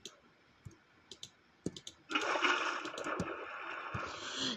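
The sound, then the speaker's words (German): A few sharp clicks, then water suddenly starts flowing out in a steady, fairly loud rushing stream with some splashy texture, continuing to the end without any voices. “Hier kommt also das Wasser raus.”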